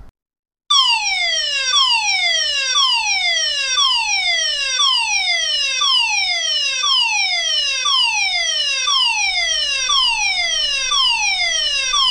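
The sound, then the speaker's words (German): A loud electronic alarm siren whoops repeatedly in rapid, evenly spaced descending sweeps, continuous for about eleven seconds with no voices. “Oh mein Gott, was ist das denn? Das ist ein Alarm.”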